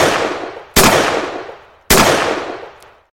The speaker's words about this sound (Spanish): Vamos con esos eh, balazos.